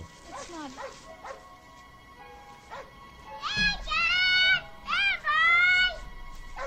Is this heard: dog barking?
yes